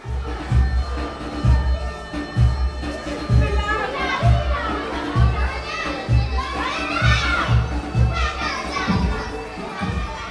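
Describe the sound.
During the main break at a camp school, schoolgirls dance in a line, holding hands in the school corridor, and shout and cheer over dance music with a steady, thumping bass beat from a loudspeaker box. Their high voices rise in excited bursts throughout, loud and lively.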